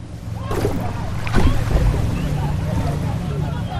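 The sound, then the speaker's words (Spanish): Waves slap and crash against an old cayuco boat driven by a small motor amid a steady roar of wind and water, with two heavier surges standing out, while indistinct voices shout underneath amid chaos and panic aboard. “El motor pequeño ya no impulsa el cayuco como lo hacía el grande y las olas vuelven a azotar una embarcación donde reina el caos y el pánico.”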